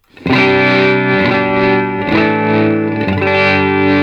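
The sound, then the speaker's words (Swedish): A loud, sustained synth chord with a smooth sine-wave auto-pan sweeping it gently back and forth, the harmony shifting about once a second, with no talking. “så det är inget Tremmo i sig, utan en, det är en pan, panoreringsfunktion, eller vad man ska säga?”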